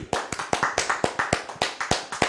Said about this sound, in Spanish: Vamos a darle un fuerte aplauso al Eterno.